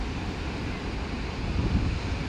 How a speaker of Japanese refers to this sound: そうですねあの波の音がねちょっとうるさいか小さいか分かんないんですけどもあのさっきねもっと波波打ち際にいたんですけどもすごいうるさくてねあの波の音が雑音になってしまったんですね